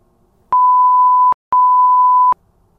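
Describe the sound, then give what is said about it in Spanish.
Two steady, loud electronic beeps signalling the second call, each lasting under a second, separated by a short gap, with nothing else around them. “Esta es la segunda llamada.”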